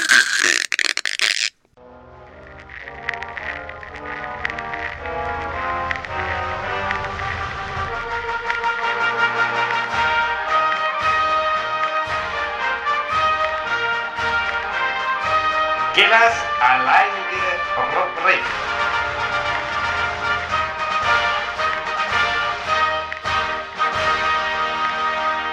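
A radio segment jingle kicks off with a brief noisy burst, then a loud, steady stretch of tuneful, buzzy tones with a quick rhythmic pulse, running without pause for about twenty seconds.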